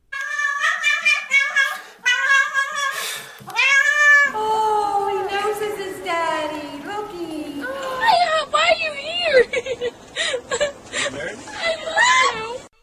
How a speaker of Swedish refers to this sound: Det var första var en katt